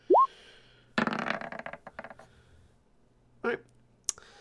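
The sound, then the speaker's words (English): Dice clatter and tumble across a hard surface as everybody rolls for a general intelligence check, a quick rattling burst of clicks lasting about a second, followed by a couple of separate knocks as they settle; a brief rising squeak opens. “Everybody roll the everybody? dice.”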